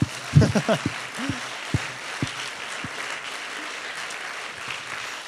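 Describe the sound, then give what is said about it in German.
A short burst of audience applause for the group's own team members, a dense patter of clapping with a few louder voices and whoops in the first second, then thinning into steady, fainter clapping that continues to the end. “Gib mal unseren Leuten mal einen Applaus hier.”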